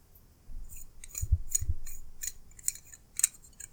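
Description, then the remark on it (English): Fairly quiet metal-on-metal scraping from the threads of a stainless steel Randall Model 18 knife, heard as a series of sharp, bright ticks and rasps with a couple of low handling thumps near the start. No one speaks. “So like heard, little little reverb of metal scraping against yeah, metal, the threads.”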